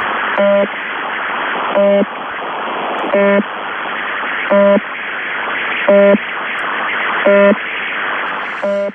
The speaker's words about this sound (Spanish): Vale, resumiendo mucho, porque es una historia que daría para, para, un programa entero, pero vamos, básicamente este ruido nosotros le denominamos channel marker o marcador de canal